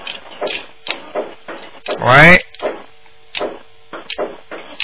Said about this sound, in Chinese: 家里在切菜嘛？